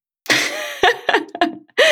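A loud sneeze with breathy, explosive bursts, a long noisy blast followed by a few short sharp puffs and a final forceful burst, with no talking.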